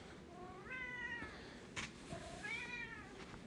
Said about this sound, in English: And in case you haven't heard, I have a cat who likes to meow in the background while I'm doing this.